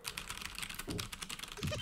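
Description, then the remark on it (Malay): Rapid typing on a computer keyboard, a steady patter of crisp key clicks continuing throughout with no voices. “Doh itu keyboard apa? Ya Allah. Dan Dinda. Ya, Literally keyboard.”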